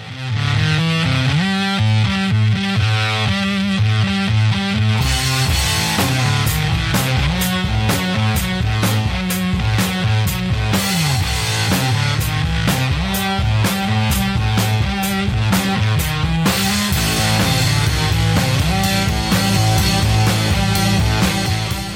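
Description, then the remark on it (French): Loud, driving garage rock plays throughout, with gritty distorted guitar over a steady pounding beat. The mix is dense and energetic, and no one talks over it. “il a démarré en jouant un rock garage hyper efficace.”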